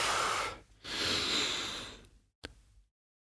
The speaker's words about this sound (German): Wenn ich jetzt normal singe, erstmal ein- und ausatmen.